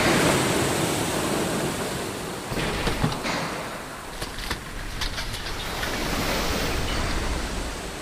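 Ocean waves break and wash in a steady, broad roar of surf, with a few brighter crashes and splashes standing out midway. No one speaks.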